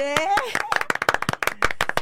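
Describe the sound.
A small group bursts into applause, a quick, uneven patter of hand claps close by, with a few voices calling out over the start before the clapping carries on steadily.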